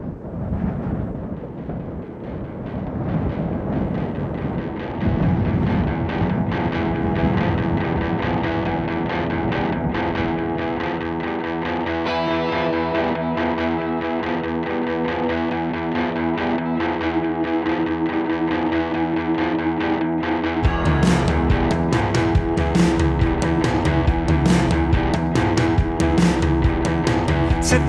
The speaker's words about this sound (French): C'est le morceau que l'on va écouter tout de suite.